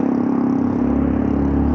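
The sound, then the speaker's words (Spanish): A loud motorcycle exhaust roars, a steady, throaty engine drone with a rough low rumble that holds at full strength the whole time, with no voices. “Una moto con el escape y todo.”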